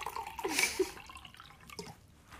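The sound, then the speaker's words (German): A woman pours herself a drink: a brief splash of liquid with a bright, hissy burst, followed by a few soft drips and clinks, fairly quiet overall with no talking. “Sie schenkt sich was zu trinken ein.”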